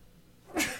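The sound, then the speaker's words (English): A single quick, sharp sneeze bursts out after a moment of near silence, then fades quickly with no talking around it. “bless you”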